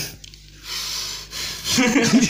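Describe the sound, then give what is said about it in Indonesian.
Loud breathing rushes straight into a microphone fitted with a wind shield in broad noisy bursts, with a gasp-like intake, followed by a brief voiced sound at the end. “suara nafas kau tuh, walaupun ini ada pelindung angin, tetap masuk di jarak segitu”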